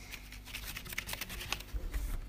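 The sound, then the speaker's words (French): Small paper slips rattle inside a box being shaken before a random draw, a quick run of dry rustling and light knocking taps that grows a little louder toward the end, without any talking. “Alors j'ai mis le petit papier dans la boîte et je vais secouer la boîte.”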